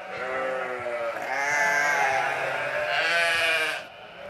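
Sheep on the smallholding Nedre Utgård bleat in overlapping, wavering cries, a loud chorus of harmonic calls that swell and persist for about four seconds before fading, with no talking.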